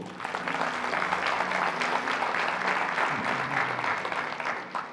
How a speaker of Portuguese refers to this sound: Você pode dar um aplauso ao Senhor?